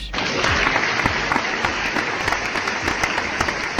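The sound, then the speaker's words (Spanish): Sustained applause from a crowd, a dense wash of many hands clapping steadily and fairly loudly with sharp individual claps popping out, no voices standing out; applause played on the Millennial show on 103.4 FM radio. “Aplauso de Millennial en la, en la 103.4 FM.”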